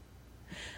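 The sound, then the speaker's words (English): A female dog pants close by: a short, breathy huff of air comes in after a moment of near silence, soft and airy with no voices around it. “That's my dog. He, she messing up the vibes. She she's right here next to me panting.”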